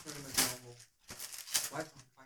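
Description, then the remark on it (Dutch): Perforated paper is torn by hand off a package slightly larger than a book, in a few quick, rough rips with crisp, scratchy bursts, while a voice talks faintly underneath. “Er gaat nu gestippeld papier vanaf gescheurd worden.”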